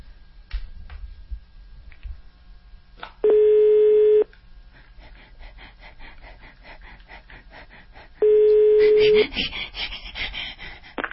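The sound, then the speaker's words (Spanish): A telephone call being placed: two long, steady, mid-pitched ringing tones about five seconds apart, each lasting roughly a second, with faint rustling and muffled background noise in between. “Marca esto.”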